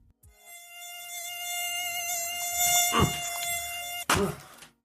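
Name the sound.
mosquito buzzing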